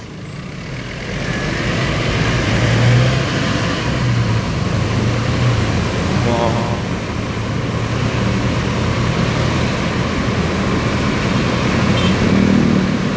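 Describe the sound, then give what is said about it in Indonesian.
Steady, dense road traffic rumble in a traffic jam, with idling engines and heavier vehicles mixed in, a continuous low droning wash that holds at a fairly loud level throughout, with no voices. “gue paling paling benci tuh gua kayak gitu tuh mungkin lah ada yang sama juga kayak gitu tuh gue paling gerutu tuh, tuh kalau udah macet-macet gak jelas”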